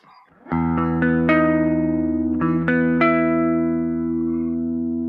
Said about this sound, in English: So um, let's take a look at the basic sound, um, and listen to the basic sound. So this is the cabinet, the Leslie cabinet.